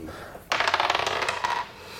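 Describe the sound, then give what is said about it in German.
Dice clatter and tumble across a hard tabletop in a quick burst of rapid, bright clicks lasting about a second, fairly loud, then settle into quiet. “Wollen wir einfach mal würfeln?”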